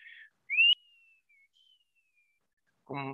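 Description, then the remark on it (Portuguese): A voice imitates a whistling desert wind: a short, loud rising whistle that trails into a long, faint, slowly falling tone, followed by a brief bit of speech at the end. “é o ruach, ou seja, é o espírito ou o vento, é, ruach em hebraico, em idiomas semitas, em hebraico, em árabe.”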